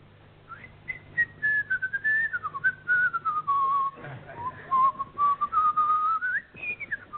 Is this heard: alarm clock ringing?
no